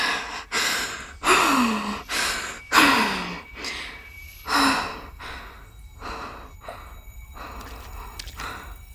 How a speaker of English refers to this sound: I don't know which path to take. Oh no. Deep breaths.